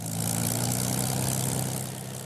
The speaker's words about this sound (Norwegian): Lyden av en Spitfire kan du høre i Biggin Hill i Kent sør for London. Her finnes en hangar med flere av disse flyene.